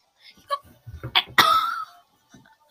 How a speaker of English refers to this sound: Um, I'm trying to make it so that if you were watching, you could see him, but my character just keeps burping at my face. Stop burping!